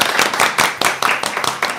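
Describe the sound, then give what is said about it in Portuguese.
Steady hand clapping in applause for Marcilene, with sharp, bright claps repeating at a quick, even pace, roughly seven or eight strikes in under two seconds, fairly loud and with no voices over it. “Marcilene, palmas para você, ó. Palmas, gente.”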